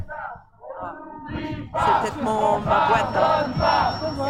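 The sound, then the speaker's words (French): A crowd at a march chants together in the background beyond the microphone, muffled and rhythmic, growing louder and fuller partway through as many voices shout in unison. “C'est juste les, bruits de fond qui sont au-delà de ton micro euh, qui sont un peu atténués.”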